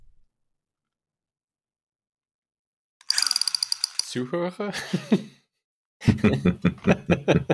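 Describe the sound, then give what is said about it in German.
A rapid, evenly spaced burst of sharp mechanical clicks like a toy machine gun firing, made by a person firing a machine gun, lasting about a second after silence, followed by a short spoken word and then laughter. “ach, du bist dieses Geräusch. Kannst du das Maschinengewehr in die Kamera halten? Dann sehe ich besser, wenn du äh, feuerst.”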